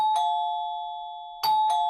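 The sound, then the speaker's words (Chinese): An electronic doorbell at a farm owner's house chimes at noon in bright, steady tones, one ring that sustains and fades, then two quick strikes in succession near the end. No one speaks. “第二天中午，农场主人家的门铃响了。”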